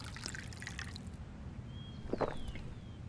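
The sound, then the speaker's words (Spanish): Water trickles and splashes softly into a glass, with a few scattered drips and a faint rising ring toward the end as it fills. Quiet and without voices. “¿Deseas un poco más de agua?”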